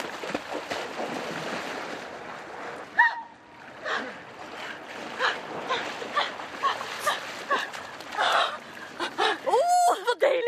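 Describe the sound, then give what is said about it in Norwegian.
Bursts of splashing and churning water as someone sprints Baywatch-style from the beach out into the sea through breaking surf, with waves washing around and a few shouts and voices mixed in. “Spreng ut uh, fra stranda og ut mm. i vannet.”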